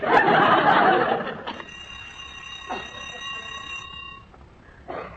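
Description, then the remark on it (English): A school bell rings at the end of class with a steady, shrill metallic tone for a few seconds, following a loud burst of noisy commotion at the start, then cuts off leaving quiet rustling. “Well, there's the bell. Class dismissed.”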